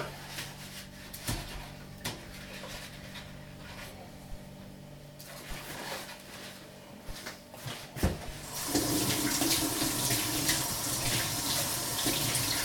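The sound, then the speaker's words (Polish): A kitchen tap is turned on and warm water runs steadily into a sink over two eggs being rinsed, after several light clinks and handling sounds; a continuous gushing rinse with no talking. “jajka opłuchczę pod ciepłą wodą i już mogę wbijać obydwa.”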